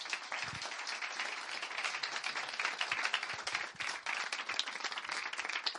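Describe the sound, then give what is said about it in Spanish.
Sustained applause from a church audience before the preaching, a dense wash of many hands clapping steadily at a fairly loud, even level for several seconds, with no voices standing out. “Un aplauso, ahora vamos a predicar.”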